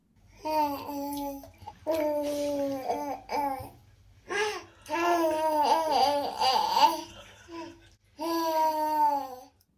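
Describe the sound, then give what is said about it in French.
A baby in the bath babbles and coos, making sounds resonate in its mouth, in bursts of high, sing-song vocal sounds, clear, with short pauses between phrases and a slight echo. “qui prend plaisir dans son bain à faire résonner des sons dans sa bouche.”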